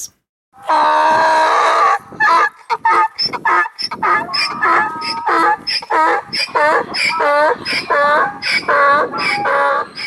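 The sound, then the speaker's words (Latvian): A donkey brays loudly, a long run of harsh, wheezing honks that rise and fall in a rapid see-saw rhythm for about ten seconds. “Izklausījās pēc ēzeles. Jā, tas bija ēzeles.”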